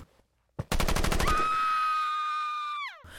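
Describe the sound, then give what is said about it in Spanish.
A sharp bang leads into a quick, loud burst of rapid automatic gunfire exchanged back and forth, followed by a sustained high whine that holds steady and then drops away abruptly. No one speaks. “Disparos de un lado a otro.”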